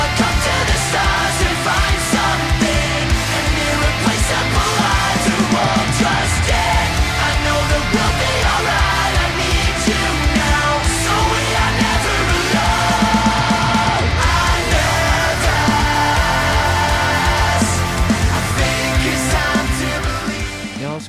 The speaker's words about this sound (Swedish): Och det är ett metalcore-band från Sheffield. Och vi ska ta och lyssna lite på den låten